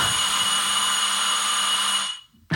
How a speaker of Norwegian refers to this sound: Nå ringer det på døren her. Det ringte på døren her